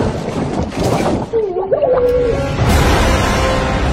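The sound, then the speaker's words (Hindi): Muffled underwater churning and gurgling fill the whole stretch, with a low warbling tone drifting through the middle and a sudden rush of water near the end, as a person pushed from behind off a bridge falls into a river and starts to drown. “किसी ने पीछे से ऐसा धक्का दिया कि वो सीधा पुल से नीचे नदी में गिर गया और डूबने लगा”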